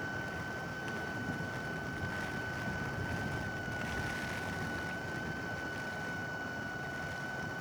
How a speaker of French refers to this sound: on pourrait presque croire que c'est un problème sur les microphones. Et non, c'est naturel. C'est bien un souffle. Un souffle de roche. Petit peu de gaz qui sort. Gaz sulfuré.